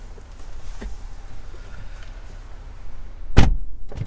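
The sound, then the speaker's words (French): Low engine-like rumble inside a car, a couple of faint clicks, then a loud car door thunk near the end as a passenger gets out, followed by a softer knock. No one speaks. “Je te salue, je te laisse sortir de la voiture pour que je puisse conclure.”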